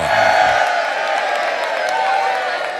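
A studio audience on the RTE Radio 1 show Liveline applauds and cheers steadily, a dense wash of clapping mixed with whoops and shouts that stays loud and even throughout, with no single voice standing out.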